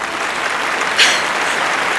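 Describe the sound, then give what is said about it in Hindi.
A large crowd claps and cheers in a steady, dense roar of applause that fills the whole stretch, with a brief louder swell about halfway through. “कुछ पलों के लिए मैं सब कुछ भूल गई और जब मैं होश में आई मुझे तालियों की गड़गड़ाहट सुनाई दी”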